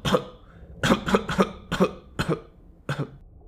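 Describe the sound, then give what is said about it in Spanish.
A harsh coughing fit: about seven hacking coughs in quick, uneven bursts, some doubled, with short ragged breaths between them and no talking. “¿Llevas mucho con esa tos?”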